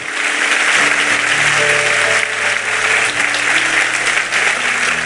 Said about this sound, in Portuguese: Aplauda ele, porque ele merece.